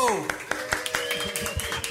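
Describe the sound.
Applause comes as a steady run of sharp claps, about four or five per second, heard under people talking loudly over it.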